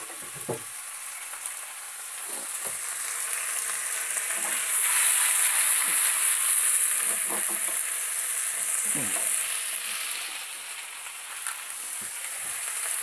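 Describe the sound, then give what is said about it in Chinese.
Greens frying in a pan: a steady, bright sizzling hiss that swells louder midway and then eases a little, with scattered soft clunks and scrapes from stirring. No one speaks. “好，我现在把青菜放进去。”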